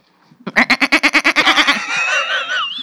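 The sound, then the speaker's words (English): A person's voice imitates a goat, giving a rapid, pulsing bleat of about a dozen quick beats that trails into a wavering, drawn-out cry, loud with no other sounds. “made goat noises on an episode”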